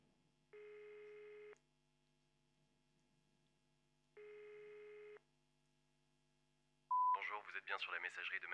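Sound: phone call ringing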